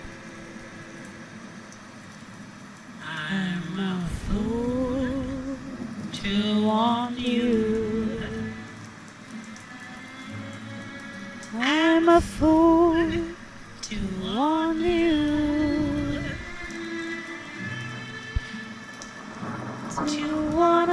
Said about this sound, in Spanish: El viento deja entre sentir chispas de agua. Ninguna de las dos se molesta en cerrar la ventana y el agua irrumpe el silencio junto con el ruido de la radio.